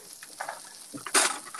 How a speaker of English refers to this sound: Actually, the, sizz- the, sizzling is making me so hungry.